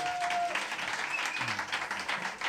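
An audience applauds a band's accordion and guitar player as he is introduced, a dense steady wash of many hands clapping at once, with a brief thin whistle-like tone early on and faint murmuring underneath.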